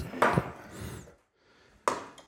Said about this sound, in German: so, ich habe nämlich gerade, wie ihr gehört habt, eine Flasche geöffnet. Das ist kein Bier, sondern es ist ein Tonic Water.